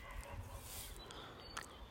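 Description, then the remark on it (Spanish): Faint birds call outdoors against a soft, steady background hiss, with a couple of brief chirps standing out near the end. No one speaks. “Los pájaros aquí están tranquilos y se les oye muy muy bien.”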